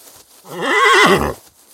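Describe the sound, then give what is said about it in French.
A single loud wild horse whinny lasting about a second, its quavering pitch rising and then dropping into a low snort at the end, with near silence before and after. “Beaucoup de chevaux aussi, il y a plein de chevaux ici.”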